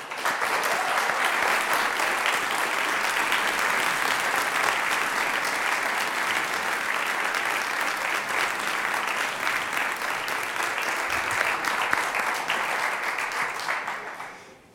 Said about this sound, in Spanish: Esa persona es Rodrigo Gutiérrez Viñuales, al que voy a invitar a que suba y a, que usted, y a ustedes voy a invitarles a que le acompañen con un aplauso.